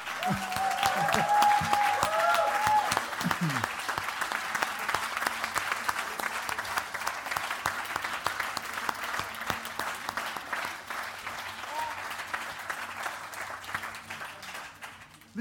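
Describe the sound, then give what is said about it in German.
Loud, sustained applause from a large audience, a dense crackle of many hands clapping steadily for about fifteen seconds, with a brief cheer or whistle near the start. “Und einen Riesenapplaus”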